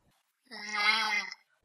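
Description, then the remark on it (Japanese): A voice imitates an eerie, moaning child's cry: one sustained, steady-pitched tone lasting under a second, fairly loud, with silence before and after. “赤ちゃんとも子供ともつかないような、うーん、僕としては子供の声に聞こえたんですけども”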